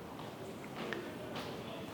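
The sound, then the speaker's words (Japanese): Footsteps of someone walking from the train toward street level echo through a busy underground subway station, a few soft taps rising out of a steady wash of reverberant crowd and machinery noise, with faint indistinct voices in the background. “またちょっと歩きます。”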